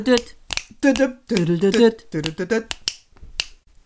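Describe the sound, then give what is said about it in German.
Several crisp, sharp finger snaps, the secret sign of the Nightshades from the series Wednesday, ring out at irregular intervals, interleaved with a voice vocalizing, and a couple of snaps stand alone at the end. “das ist sogar lustig, weil das ist das Geheimzeichen von den Nachtschatten.”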